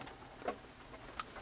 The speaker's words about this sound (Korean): 이게 차 위에 떨어지는 이 빗방울 소리가 아, 참 듣기 좋은 것 같습니다. 아, 어떤 음악보다도 더 어, 아름답고 예쁘고 설레게 그렇게 떨어지는 그런 소리가 아닌가라는 생각이 들고 어, 들리시는지 모르겠네요.